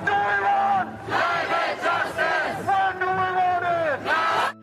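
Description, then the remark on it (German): A large crowd chants in unison outdoors on a street in Berlin at a climate strike protest, rhythmic shouted phrases repeating loudly with brief pauses between them. “Damals war Klimastreik, heute auch und darüber sprechen wir auch gleich.”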